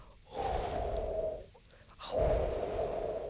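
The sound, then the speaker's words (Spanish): Two long, breathy 'huu' exhalations, voiced softly, each lasting about a second with a brief pause between; a person deliberately producing a hollow, airy healing sound associated with the spleen or pancreas and the stomach. “Es con la U. Supone que es H-H-U. Tipo aullido lobo, no.”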